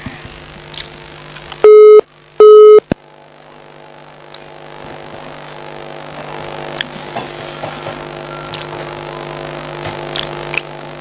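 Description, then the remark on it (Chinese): A phone busy signal sounds twice after a phone call dropped: two short, loud, steady mid-pitched beeps about half a second apart. A low, constant hum with faint clicks fills the rest, and no one speaks. “喂，好了，电话都断掉了，讲话太快，哎。”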